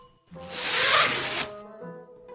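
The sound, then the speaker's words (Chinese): A single long zipper on a spacesuit is pulled open, rasping for about a second, a bright, scratchy burst that starts abruptly and cuts off, with faint tonal hum before and after. “哎，拉链。”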